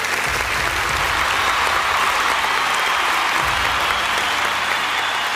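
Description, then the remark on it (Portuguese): Steady audience applause for the Marvel multiverse fills the whole stretch. A dense, even wash of many hands clap at once, loud and sustained, with no voices rising above it. “Aplausos para é multiverso da Marvel.”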